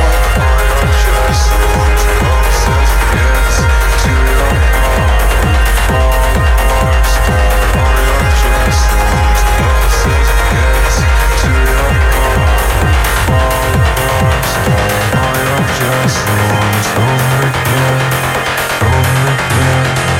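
A loud electronic dance track plays with a steady pounding four-on-the-floor kick under dense synth layers; near the end the beat drops out, leaving sustained bass tones. No one speaks.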